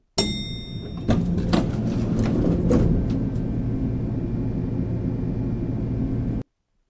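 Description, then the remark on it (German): A hotel elevator ride: a sharp mechanical clunk and rattling as it starts, then a steady low hum and rumble that continues evenly until it cuts off. No one speaks. “Und dann sind wir ja im Hotel und deswegen fahren wir hin und wieder Aufzug.”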